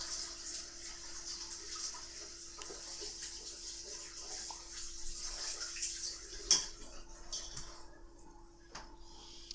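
household object, running tap water

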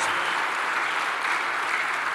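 crowd, audience applauding

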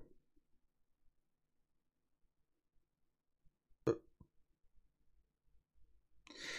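human body sound, burp

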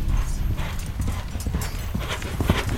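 animal, horse hooves clip-clopping

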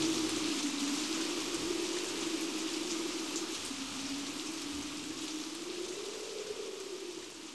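nature, rain

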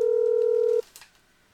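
signal or alarm, telephone dialing tones

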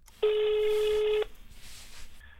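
signal or alarm, telephone dialing a call

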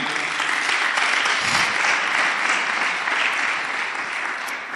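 crowd, audience clapping

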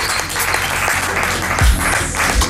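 crowd, audience cheering and applause

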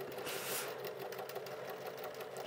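machine, sewing machine stitching

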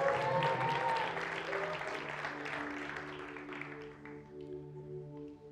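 crowd, audience applauding and cheering

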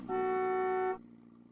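vehicle, car horn honking

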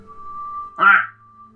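bird, raven croaking

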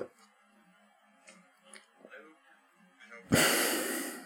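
human body sound, hiccups

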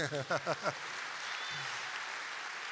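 crowd, audience applause

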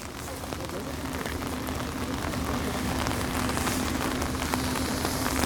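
nature, rain falling

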